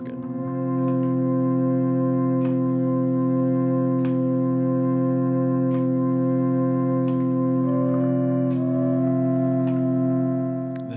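A sustained, droning chord from a handmade, unique 11-pipe organ holds steady throughout in a group's musical soundscape, rich and layered, with soft percussive clicks tapping at irregular intervals and a brief shifting tone near the end. No voices.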